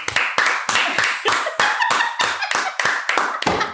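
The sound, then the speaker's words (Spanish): Steady rhythmic hand clapping, about a dozen sharp, crisp claps at an even pace of roughly three per second, loud and alone with no voices. “Gracias al Cuido Podcast por enseñármelo de los aplausos.”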